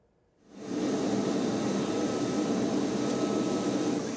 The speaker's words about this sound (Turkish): Gazze'ye yardım için uçağımız havalandı. Cumhurbaşkanlığımıza ait ilaç ve tıbbi malzemeyle dolu 20 uzman hekimin bulunduğu uçak Ankara'dan Mısır'a hareket etmiş durumda.